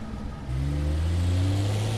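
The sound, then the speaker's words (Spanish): A car engine catches after a moment of quiet, then revs up with a steady, rising hum that holds strong for the rest of the short clip. “Cuando se subieron al auto para llevarlas al descampado a enterrarlas, fueron planeando la coartada.”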